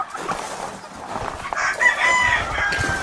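A rooster crows in a drawn-out, strained call over a busy backdrop of clucking hens, with the flock's chatter continuing steadily throughout at moderate volume.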